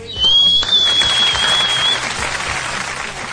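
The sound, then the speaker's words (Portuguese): A burst of steady, dense, fairly loud applause from a crowd for a winner of a free movie-ticket giveaway, with a thin high-pitched whistle-like tone over the first half before the clapping continues alone. “Salve de palma pra ela.”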